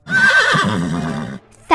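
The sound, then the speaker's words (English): A horse whinnies loudly, a long quavering neigh that wavers in pitch, followed after a brief pause by the sharp start of another neigh; English horses stuck in the mud. “The English horses got stuck in the mud”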